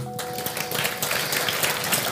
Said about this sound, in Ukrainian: Якщо ви є, просто дайте знак своєю рукою, щоб ми вас привітали оплесками.